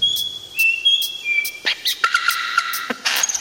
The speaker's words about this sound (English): First up, the songs of forest birds.